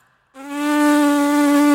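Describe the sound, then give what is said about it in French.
A steady, buzzy lip vibration like a brass player's embouchure starts abruptly and holds one pitch, fairly loud, with a nasal, insect-like drone and no talking. “Mais pas du tout, c'est le son de mes lèvres qui vibre.”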